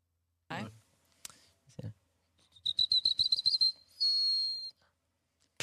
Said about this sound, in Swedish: Pilfink. Nej. Bofink.